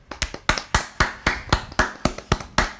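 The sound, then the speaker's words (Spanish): Hands clap in a steady, fairly quick rhythm, about a dozen sharp claps from what sounds like a single person, with no one talking. “Un saludo para él, un aplauso.”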